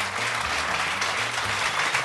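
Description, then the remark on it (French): Steady audience applause, a dense wash of many hands clapping at an even, loud level throughout, with no distinct individual claps standing out and no talking over it. “applaudissez les gars.”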